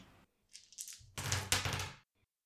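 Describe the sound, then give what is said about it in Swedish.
A brief rattle, then a busy clatter of four dice tumbling and skittering across a table for about a second before going still, rolled as misfire dice in a game. “Eller du kan ju slå fyra tärningar, det är sagt på vilken ordning de slås.”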